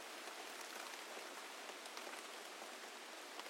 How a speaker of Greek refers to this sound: Πιάνει βροχή και ανησυχώ μη γίνει μουσκημα.